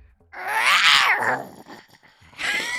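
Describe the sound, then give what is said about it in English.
A person growls out a drawn-out, theatrical tiger roar, rising and falling over about a second, followed by a shorter second growl after a brief pause. “and roar to you too.”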